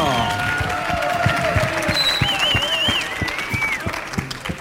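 Steady audience applause fills the whole stretch, a dense patter of many hands clapping at an even level, with a few whistles rising above it.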